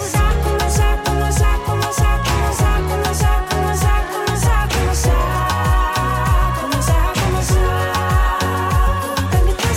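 A new Latvian pop song by a female artist, a loud, full track, plays on its own, with a steady punchy drumbeat, thick bass and bright layered instruments that swell and drive forward throughout.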